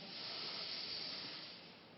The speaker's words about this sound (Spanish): Tomamos una respiración profunda